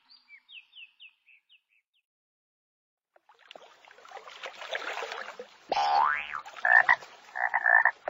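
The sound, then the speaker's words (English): Frogs in a pond croak loudly in a dense chorus, with rising, buzzy calls and repeated pulsing croaks, after a short series of faint high chirps and a brief silence. “This frog lives in a pond.”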